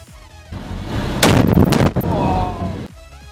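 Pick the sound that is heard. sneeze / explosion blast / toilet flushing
explosion blast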